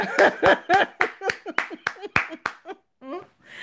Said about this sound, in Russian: Ну, тогда я вам просто Аплодирую стоя.